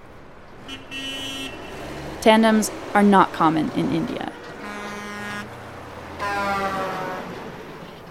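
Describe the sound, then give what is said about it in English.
Busy road traffic with several sustained car horns honking one after another, fairly loud, while a man speaks briefly between the honks, as a man rides a double bike through the traffic in extremely hot weather. “Strangers on the side of the road offered him coconut water and food, surprised to see a single man sweating his way through traffic on a double bike.”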